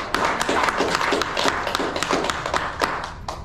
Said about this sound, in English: Give Jesus a hand clap, please.